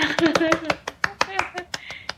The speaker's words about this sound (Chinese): 此处有掌声。